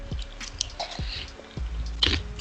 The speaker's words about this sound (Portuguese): Estás comendo salgadinho? Comendo pipoca. Descreve essa pipoca. Descreve.